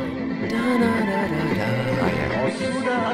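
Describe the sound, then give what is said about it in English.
A violin plays a wavering, vibrato-rich melody over a full band backing in a 1970s Afghan pop song, a 1973 hit in Kabul, loud and continuous throughout, with no voices heard. “Now listen to this violin”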